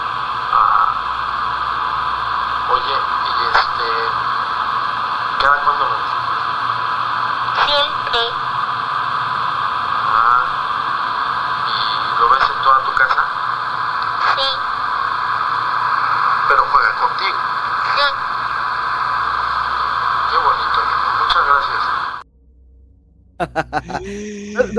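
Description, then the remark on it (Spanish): A psychophony (EVP) recording thick with steady radio static and hiss, peppered with crackles and clicks, with murky voice-like sounds buried in the noise before it abruptly cuts out near the end. “de una psicofonía que se escucha.”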